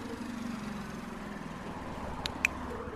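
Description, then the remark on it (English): A motorcycle engine rumbles along the street, a steady low drone with street noise around it, and a couple of sharp clicks near the end. No one speaks. “You can hear a motorcycle going by right now.”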